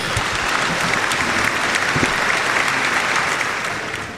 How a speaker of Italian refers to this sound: Ma vogliamo non... fare un applauso al nostro registone